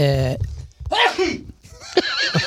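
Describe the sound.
A sharp sneeze bursts out in the middle of a short stretch of voiced vocal sounds, with more brief vocal noises following right after it.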